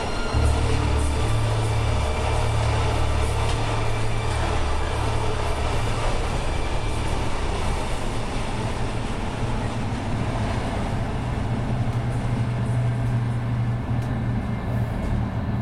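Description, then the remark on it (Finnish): A train runs steadily on its rails, a loud, continuous low rumble and rattle that stays even throughout, with no voices. “Miltä tuntuu olla junassa, joka on matkalla kohti toista vastaan tulevaa junaa?”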